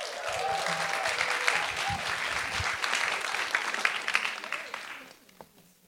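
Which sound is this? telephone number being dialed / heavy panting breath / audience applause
audience applause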